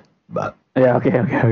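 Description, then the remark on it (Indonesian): A single short, low belch, fairly loud, followed right away by a person talking. “Tadi suara perut, sekarang sendawa.”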